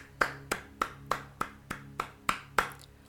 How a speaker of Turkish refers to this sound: Evet, alkış.